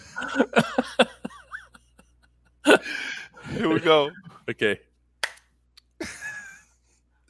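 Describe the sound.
A couple of sharp, loud hand claps ring out between bursts of talking and laughter, spaced a few seconds apart, on the Ramon Foster Show.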